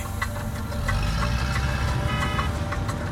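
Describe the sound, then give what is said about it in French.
Dense traffic jam, cars bumper to bumper: idling car engines rumble steady, with sustained horn tones sounding over the continuous din for about three seconds, and no voices. “Prise dans un cortège infernal, au milieu des rugissements des klaxons et des voitures grondant par choc oh par choc.”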